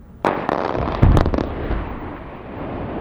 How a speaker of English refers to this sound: And guess what? The blasting is happening all over again.